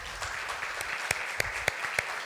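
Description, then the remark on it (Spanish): A church audience in Mendoza, Argentina applauds for the people watching online, a dense wash of many hands clapping with a few sharper individual claps standing out at regular intervals over the steady clatter. “Y todos los que están presentes, ¿qué tal si le damos un fuerte aplauso a la gente que está conectada online?”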